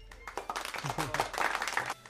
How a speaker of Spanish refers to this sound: Ah, ya suenan. Ahí está. Mi chiste, ahí está. Aplauden por mi chiste.